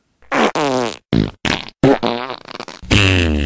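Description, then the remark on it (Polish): A string of loud fart sounds in quick succession, let out by a witch after landing on her bottom: several short, buzzy bursts followed by a longer, drawn-out one at the end, with no talking. “Wylądowała prosto na tyłku i wtedy wypuściła kolejnego bąka.”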